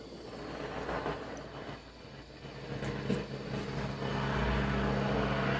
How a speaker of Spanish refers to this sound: Ok, hagamos una pausita. Seguimos grabando, pero es la pausa del helicóptero.